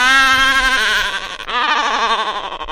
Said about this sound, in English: Albatrosses. It's obviously albatrosses. This is a honking of albatrosses.